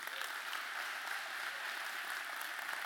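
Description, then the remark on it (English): A crowd claps steadily to honor Clay, the general contractor of the building, a dense, even wash of applause that holds at a constant level for a few seconds with no voices rising above it. “And I know he's not here, but can we just please honor Clay and give him a hand?”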